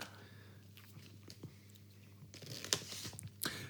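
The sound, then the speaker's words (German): Crinkling and rustling of glittery wrapping paper being handled while wrapping a gift, then two sharp, bright rips of Tesafilm adhesive tape being pulled off near the end, with soft taps as it is pressed down. No one speaks. “Ist, oh, Scheiß, soll ich mal eine Rolle Tesafilm, willst du es testen?”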